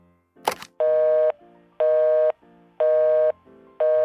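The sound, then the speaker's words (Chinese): A short clatter of a phone being angrily hung up, followed by a steady pulsing telephone tone: about four even, mid-pitched beeps, each roughly half a second with equal gaps, fairly loud, with no talking. “Marianne 生气地挂了电话。”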